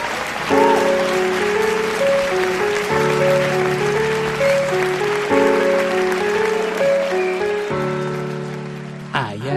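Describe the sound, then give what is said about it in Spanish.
A crowd applauds a man at table number 6 steadily, a dense clapping wash that runs the whole time beneath a repeating musical backing of sustained chords changing every couple of seconds. “un aplauso para, para él, hombre.”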